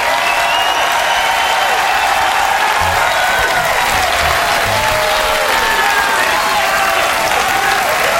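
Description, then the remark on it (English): Loud, sustained audience applause fills the whole stretch, a dense steady roar of many hands clapping with no letup. “They will not stop applauding.”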